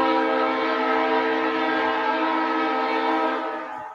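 A loud, sustained train horn blares steadily for about four seconds, rich and chord-like, then begins to fade at the very end. No one speaks.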